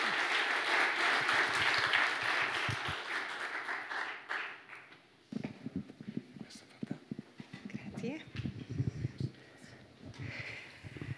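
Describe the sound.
An audience bursts into steady, dense applause that rattles on for several seconds and then fades out, after which a single voice begins speaking.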